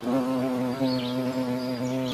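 A steady insect buzz drones on for about two seconds, loud and continuous with a slight wavering pitch, like a bee or fly hovering, with no voices.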